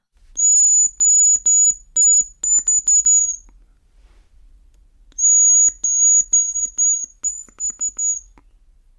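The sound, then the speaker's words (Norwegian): An imitated hazel grouse call: thin, very high whistled notes in two phrases separated by a pause, each opening with a longer trill and then going down in tone into shorter, stuttering trills. No one speaks. “en gjerpelyd, da.”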